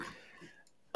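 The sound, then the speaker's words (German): A few sharp, dry clicks from a person clicking repeatedly in the background, one brief and faint, then a louder one near the end, over a low background hum, with no talking. “Also ihr hört es auch schon im Hintergrund, wenn Julia die ganze Zeit klickt”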